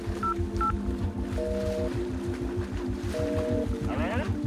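A mobile phone calling the last number dialed: two short, high keypad beeps, then two longer steady tones, all over a loud, continuous rhythmic rumbling and throbbing background noise.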